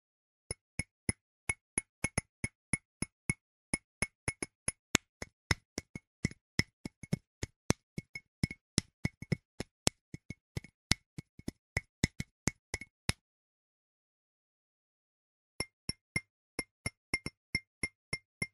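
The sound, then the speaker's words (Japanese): Quick, irregular taps first on a ceramic mug, then, after a short silence, a final run of taps on a glass cup, ringing out with bright, bell-like tones, fairly crisp. No one speaks. “さて、どちらがガラスのコップ、どちらがマグカップでしょうか正解は、一つ目がマグカップ。”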